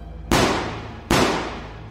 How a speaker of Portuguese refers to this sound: que reagiu instintivamente, sacou a arma e deu dois tiros a queima-roupa.